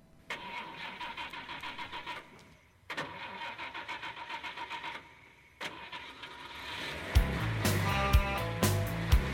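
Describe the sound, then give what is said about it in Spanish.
A car engine cranks in three strained bursts with short pauses, then catches and roars to life, revving loudly with sharp surges. No one speaks. “Tenemos los motores de este elogio de la derrota, más literal que nunca”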